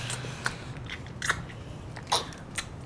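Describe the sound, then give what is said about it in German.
Crunchy biting and chewing of food, with several sharp crackling bites at irregular intervals over a low, steady background hum. No one speaks. “Der war lecker.”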